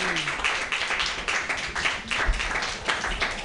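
A comedy open mic crowd claps their hands together in a dense, steady burst of applause lasting a few seconds, the many overlapping claps blending into a bright, continuous patter with no break.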